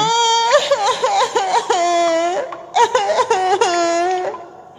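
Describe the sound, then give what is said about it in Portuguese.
A young child cries and whimpers up close in two drawn-out, wavering bursts separated by a short pause, the high voice sobbing and rising and falling in pitch. “Ele ouviu uma criança chorando.”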